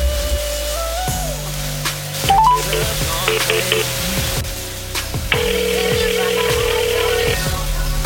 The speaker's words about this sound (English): Better pick up the damn phone.